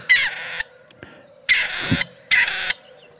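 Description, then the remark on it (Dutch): Three harsh, grating calls of a grey partridge, each a loud rasping burst about half a second long, spaced roughly evenly and heard clearly with no talking. “Dit is een patrijs. Eh, onze enige eh, inheemse patrijzensoort.”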